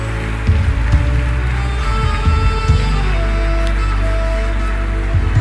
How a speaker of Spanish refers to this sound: Podemos darle un fuerte aplauso a nuestro Dios esta mañana.